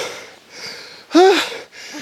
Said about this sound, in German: Ich, ich schnauf normal nicht so, ne? aber das ist hier so steil.